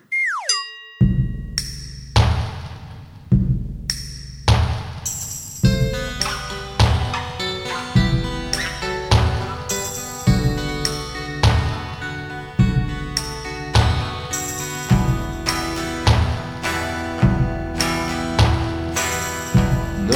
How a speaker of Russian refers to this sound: будем слушать песню про апрель